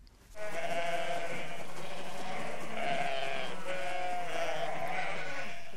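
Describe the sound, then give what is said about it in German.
Domestic sheep bleat loudly, several overlapping calls forming a continuous chorus of wavering, nasal baas that fills the whole stretch without pause. “Am Anfang ist das Schaf, das Gezähmte, das Hausschaf.”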